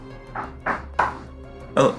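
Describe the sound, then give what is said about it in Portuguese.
Four dull knocks rap out fairly loud, three in a quick steady run and a final one after a short pause, like knuckles on a wooden door. “Um deles vai bater na porta assim, tipo.”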